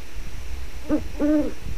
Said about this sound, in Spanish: Ahí hay un búho.